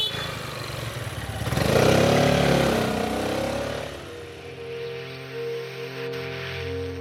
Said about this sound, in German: Und dann zieht auch der Stadtarchivar davon mit seiner 400er Piaggio. Auf drei Rädern, zwei vorn, eins hinten. Ideal, um in einer alten Stadt mit engen Gassen und verstopften Straßen schnell voranzukommen.